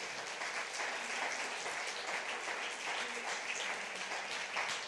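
An audience applauds, a dense, steady wash of many hands clapping that holds at an even loudness for the full five seconds without fading.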